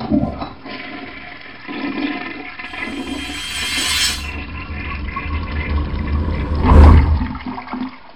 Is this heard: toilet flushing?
yes